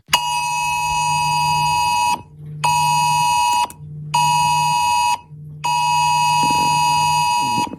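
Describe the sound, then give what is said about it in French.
A shrill FR-Alert emergency alert tone on a mobile phone, sent during a test exercise in southern France, blares in four long, loud pulses separated by brief pauses, with a faint low hum underneath and no one talking. “Le signal est très fort et strident.”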